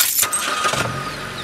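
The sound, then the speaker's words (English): A car door shuts as people get in to head home, followed by an engine cranking and catching into a low, steady rumble over a short moment, with no voices. “Andrea grabbed her keys and we all got in the car to head home.”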